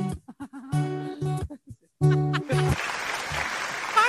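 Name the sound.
applause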